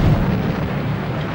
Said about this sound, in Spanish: Mamá y papá y yo salimos corriendo de la casa y fuimos a la calle. Justo cuando salimos escuché una enorme explosión.